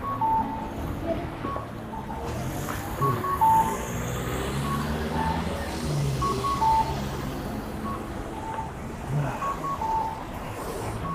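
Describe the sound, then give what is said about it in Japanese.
Steady traffic noise in a busy street in an area with many people and many cars, a continuous low rumble of engines with scattered short electronic beeps, like reversing alarms, popping in and out. No one speaks. “人も多くて車も多いエリアに入ってきたんで、だんだんちょっとうるさくなると思います”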